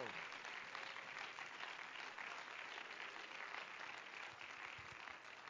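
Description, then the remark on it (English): An audience claps their hands in praise to the Lord during a church service, a sustained, dense applause, a steady wash of many overlapping claps with no pauses, holding an even level throughout. “Why don't you give a hand clap of praise to the Lord?”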